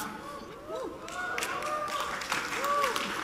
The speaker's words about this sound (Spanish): No sé por qué están aplaudiendo, pero muchas gracias.